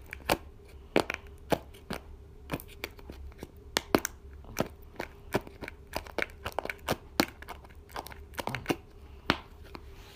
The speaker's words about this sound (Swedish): Det där var ljudet av en snusdosa.